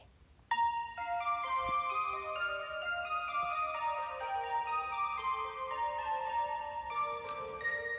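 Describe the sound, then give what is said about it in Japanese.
A short closing musical jingle of bright, bell-like tones, chiming notes layered over a steady tick-tock rhythm, playing alone without any talking for about eight seconds. “えー、お別れはもうそれしゃぼそとくのジングルで。”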